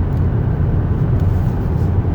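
Steady, low droning road noise from inside a moving car, a constant rumble with an even hiss above it and no voices.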